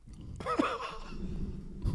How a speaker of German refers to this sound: Hör mal auf zu schmatzen, ey, sag ist ja widerwärtig. Wenigstens schmatze nicht ins Mikrofon, sondern nur in mein ja, Ohr. Deswegen tut mir leid, ich habe vergessen zu frühstücken.